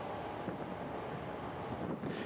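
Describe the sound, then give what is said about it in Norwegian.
A ship grinds through sea ice, a steady low rumble mixed with a broad rushing, scraping noise that continues unbroken, with no voices. “En båt bryter seg fram gjennom isen.”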